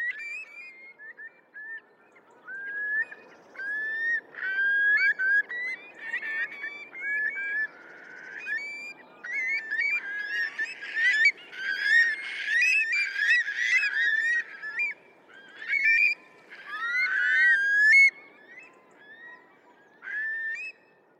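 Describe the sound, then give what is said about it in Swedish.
A large flock of about 625 Eurasian curlews, which had been resting on the beach at Påarp south of Halmstad, calling together as it lifts off: a continuous overlapping chorus of rising whistled and bubbling trills that swells loudest in the middle and later stretches, with no talking. “Jag har sett en gång en flock med jag räknade till 625 stålspovar när de stod stilla och rastade på stranden i Påarp söder om Halmstad.”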